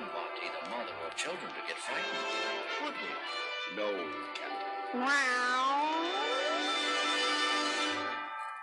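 A cat meows in a string of strained, wavering cries, ending in a long, drawn-out yowl that slides upward in pitch. The cat is fairly loud, with no pauses between calls.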